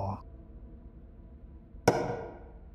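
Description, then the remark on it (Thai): A single sharp tap of fingers knocking on wood, close and fairly loud, with a short ringing decay, heard in near silence right beside someone hiding inside a cabinet under a sink; a brief fragment of voice fades out at the very start. “นั่นเสียงอะไรนะ่ะ เสียงมัน เสียงเหมือนกับคนเคาะนิ้ว เดี๋ยวนะ เสียงมันดังอยู่ข้างๆผมนี่ หรือว่ามีใครบางคนอยู่ในนี้กับผมด้วย”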